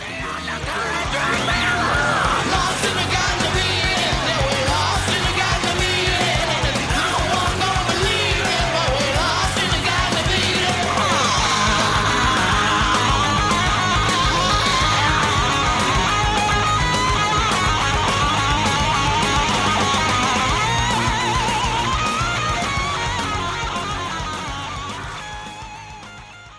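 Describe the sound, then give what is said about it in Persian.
A loud, dense rock song plays throughout, with distorted guitars, pounding drums and crashing cymbals under a shouted, strained male vocal, holding steady volume before fading at the end. “یه تیکه دیگه شو گوش کنین”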